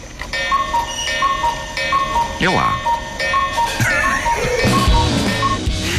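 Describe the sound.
A cuckoo clock ticks steadily while its bright, tinkling chime plays a short repeating melody, fairly loud, with a voice speaking briefly over it.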